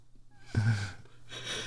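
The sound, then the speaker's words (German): A female animal yawns: a short nasal whine, then a low throaty open-mouthed gasp that trails into a long breathy exhale, fairly quiet with no talking. “Jetzt gähnt sie auch noch. Weißt du, weil sie gelangweilt ist.”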